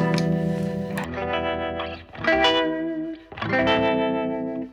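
Electric guitar chords played through the harmonic tremolo mode of a tremolo pedal from the Swedish firm Survey Industries, the volume swelling and dipping in a steady wobble, with a full, slightly driven tone and no voices.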